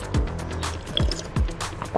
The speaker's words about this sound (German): Spül mich einfach mit einem Schluck Wasser runter. Das ist der direkteste Weg.